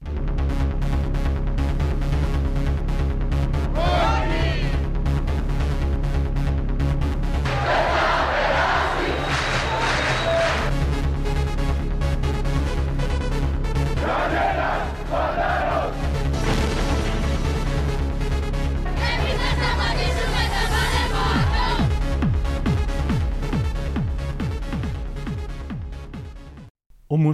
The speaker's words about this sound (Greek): Και το Κουκουέ βάζει εξαγριωμένους διαδηλωτές που φωνάζουν «Όχι»